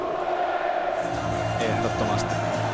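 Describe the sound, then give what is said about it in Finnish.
A stadium crowd at a Juventus match roars steadily, a dense wash of many voices with bellowing shouts and whoops rising over the din, loud and continuous throughout. “Niin vaikka tässä nyt Yle puheen taajuudella ollaan, niin kyllähän tällaista yleisön mylvintää kelpaa kuunnella”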